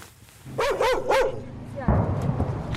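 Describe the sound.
A black dog barks three times in quick succession, loud, in the shelled ruins of Bakhmut where people are collecting firewood, then a person starts talking as the barking stops.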